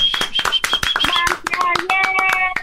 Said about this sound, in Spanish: te mando un abrazo y te doy un aplauso. Bravo, bravo.